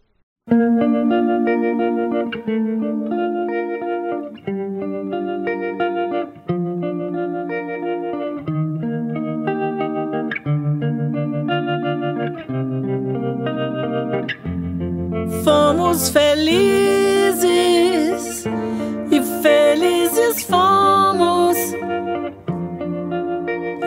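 A song plays: sustained, shimmering chords with a chorus-like effect repeat steadily every couple of seconds, then a fuller, brighter band sound with crashing cymbals joins partway through.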